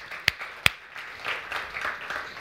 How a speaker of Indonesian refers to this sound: Boleh, tepuk tangan Tuhan